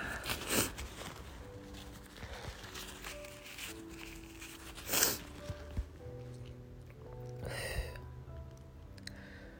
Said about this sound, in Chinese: 哎呀，擤鼻涕。